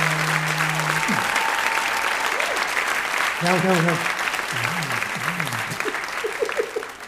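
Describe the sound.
Steady, dense applause from an audience fills the whole stretch, loud and continuous, with a few short spoken words and some higher voiced tones rising briefly over the clapping.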